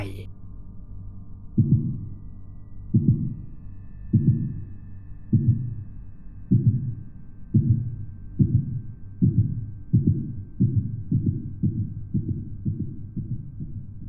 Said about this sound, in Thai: ผมรีบวิ่งลงไปที่ชั้นใต้ดินเสียงหัวใจยังคงเต้นดังมากๆ ถึงขั้นกลบเสียงฝีเท้าของผม ที่กำลังวิ่งลงไปตามขั้นบันได